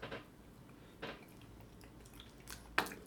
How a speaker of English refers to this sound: Um, anyway, so I'm gonna yeah I'm gonna get a little nibble on this.